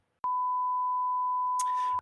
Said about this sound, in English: Please leave your message at the sound of the beep.